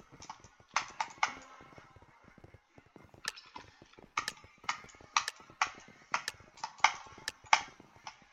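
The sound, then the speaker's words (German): Quick irregular clacks of keys being struck, in short bursts with sharper clicks mixed in, like typing and mouse clicks, fairly quiet with no talking. “Übrigens, schreibt mal in die Kommentare, ob euch Tastaturgeklacker und Mausgeklicke stört.”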